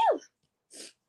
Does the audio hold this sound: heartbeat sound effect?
no